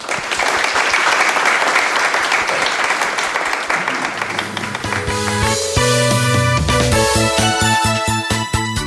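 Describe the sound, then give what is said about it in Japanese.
A crowd applauds steadily with dense, sustained clapping for several seconds at the close of a Duskin IR seminar presentation, then upbeat music comes in and takes over as the applause fades beneath it. “どうぞ大きな拍手でお送りください”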